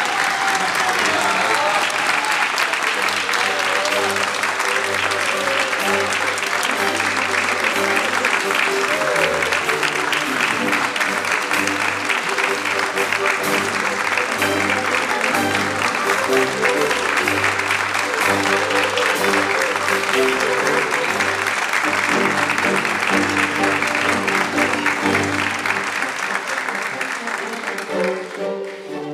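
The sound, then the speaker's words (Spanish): Sustained applause from a large audience at the end of a theatre play fills the whole half-minute, dense and steady, with a low musical drone underneath, fading slightly only at the very end. “¿Me hace el favor de pedir el aplauso? esperemos que no haga falta, ¿no? que aplaudan porque les gustó.”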